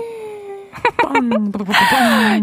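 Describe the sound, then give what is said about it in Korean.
A DJ on a live radio show imitates firecrackers with the mouth to celebrate their own birthday: a held tone, then a quick run of popping bursts and a hissing, falling whistle, fairly loud. “야, 야, 혼자 생일 노래 자축해서 부르고 또 입으로 낸 또 폭죽 소리 듣고 특별하네요, 아주.”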